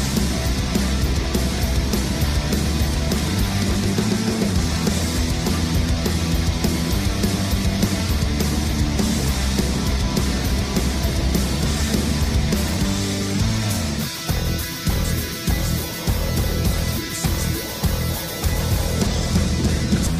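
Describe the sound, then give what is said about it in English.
Loud, dense music plays continuously from a vinyl record, then partway through the record skips, turning choppy and stuttering and breaking into short repeated fragments. “That thing's skipping and shit.”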